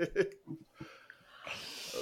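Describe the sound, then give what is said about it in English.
A drawn-out yawn: a few short voiced sounds, then a long breathy exhale that swells louder toward the end. “I'll try not to yawn so no, much.”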